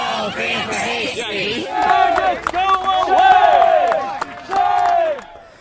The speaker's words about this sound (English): you look pretty calm while they're screaming at you.